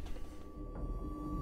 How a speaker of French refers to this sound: Désolé, j'ai mon téléphone qui fait du bruit.